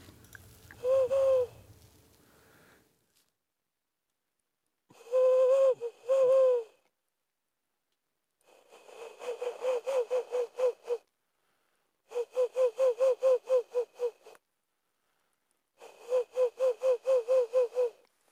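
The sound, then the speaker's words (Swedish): A nature guide imitates a Ural owl: first its song, a few deep, hollow hoots, then its contact call, three bursts of rapid, pulsing hoots, each phrase separated by short pauses, with no other speech. “det var, det var slagugla och först var det, var det spelläte och sen var det lockläte.”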